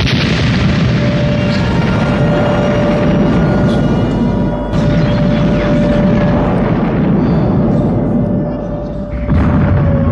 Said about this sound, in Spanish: ¡A la explosión!